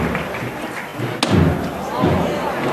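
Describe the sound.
A single sharp knock of a foreman's hammer on the Cachorro procession float rings out once, abrupt and loud, over a steady background murmur of voices.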